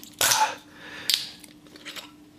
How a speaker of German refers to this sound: Ich habe ein Gingerbier. Mhm. Und das werde ich mir jetzt auch gleich aufreißen.